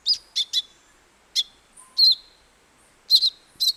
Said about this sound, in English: But a tiny songbird in South America called the thick billed euphonia does employ what scientists call deceitful mimicry, a very rare trait among birds.